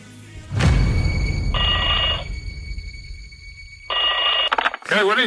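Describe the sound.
A telephone rings twice, each bright, warbling trill lasting under a second with a pause between, over a low rumbling background and brief murmuring voices.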